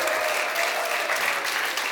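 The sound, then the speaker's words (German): A crowd applauds steadily, dense overlapping claps forming a continuous, fairly loud wash of sound with no voices standing out. “Ich höre nur, alle klatschen. Es klatschen alle gerade, guck mal.”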